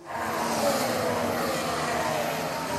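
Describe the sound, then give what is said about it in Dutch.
A partly electric Formula 1 car's engine drones steadily for a few seconds, a fairly loud, even mechanical whine and hum without the deep roar, heard on its own. “De motoren van de sportauto's waren dit jaar voor het eerst deels elektrisch en dus stiller geworden.”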